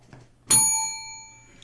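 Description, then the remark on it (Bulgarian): A single bell strike rings out clearly, its bright metallic tone sustaining and slowly fading over about a second against a faint low hum. “Е, това е. Звънеца.”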